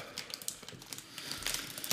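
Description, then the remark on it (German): Busy crinkling of a thin plastic snack bag of grilled scallop strings as a hand reaches into it, with irregular bursts of rustling and crackling that build toward the end, no voices. “Hier, komm, greif mal rein in die Tüte.”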